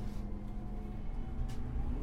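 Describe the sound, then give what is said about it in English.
A bus engine drones steadily as the vehicle drives along, a continuous low rumble with a faint mechanical whine and no voices, at moderate loudness throughout. “Besides the crazy lady who just ran out in front of this bus?”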